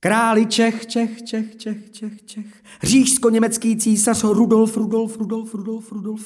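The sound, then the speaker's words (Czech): A man's voice mimics an echo in Czech, repeating the last word of each phrase several times in a row, trailing off rhythmically. “Prosím, echo?”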